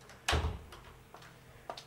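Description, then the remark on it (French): A door shuts with a solid thud, followed by a few lighter clicks and taps from the latch or handle. No one speaks. “Oui, entre et ferme la porte derrière toi.”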